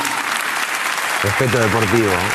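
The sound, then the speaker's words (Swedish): A large crowd at a gala booing and jeering loudly and continuously at Martinez, with a single voice speaking French over the din from about halfway through, asking the crowd to let him speak. “Laissez-le Los s'exprimer. s'il vous abucheos plaît”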